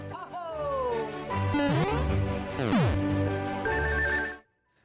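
A short, bright electronic jingle of synth tones with swooping pitch glides introducing the week's news segment, loud for about four seconds before cutting off abruptly into silence.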